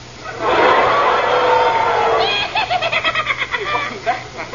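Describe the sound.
A person imitates a crow call, first with a long, loud, hoarse caw, then a quick run of short, pulsing croaks.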